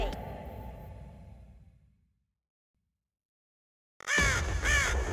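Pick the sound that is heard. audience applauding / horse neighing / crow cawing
crow cawing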